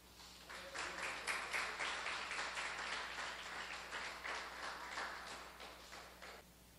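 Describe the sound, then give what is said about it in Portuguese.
A church audience applauds Jesus at the end of a sermon, steadily for several seconds, a dense patter of many hands clapping at a fairly even level before tapering slightly at the end. “Os aplaudir Jesus.”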